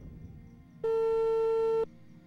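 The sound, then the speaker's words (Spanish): A single loud, steady electronic beep of a WhatsApp call ringing tone on the Radio OVNI call-in line, lasting about a second over faint low background noise, with no one speaking. “Uy, ese entró, ¿eh?”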